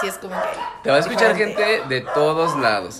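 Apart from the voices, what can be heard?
dogs barking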